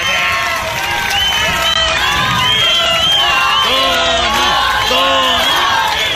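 A rowdy crowd yells and hollers over each other, many overlapping voices rising and falling in loud, continuous shouts, like an arena audience at a wrestling match.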